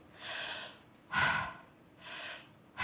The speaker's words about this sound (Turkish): Sadece derin ve uzun nefesler alarak veriş zaten tamamen diyaframın kendi hareketi olduğu için veriş için hiçbir şey yapmanıza gerek yok. Sadece kendinizi serbest bırakmanız gerekiyor. Nefes alıp verirseniz bir süre sonra uykuya dalacaksınızdır.